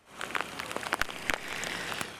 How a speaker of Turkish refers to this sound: Beklenen yağmur İstanbul'a geldi. Megakent güne yağmurla başladı.